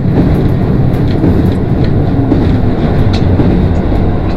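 A train on Japan's Nemuro Main Line (Hanasaki Line), between Nemuro, Akkeshi and Kushiro, rumbles steadily along the rails, a loud, continuous low roar with faint rhythmic clatter and occasional squeaks above it, no voices present.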